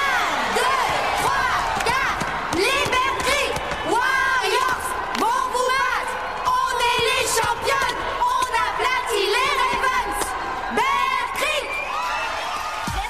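A large crowd at an annual cheerleading (pom-pom girls) competition cheers loudly and continuously for the first team, the Bear Creek Warriors, with high-pitched whoops, screams and shouts rising over a dense roar, punctuated by occasional sharp thuds.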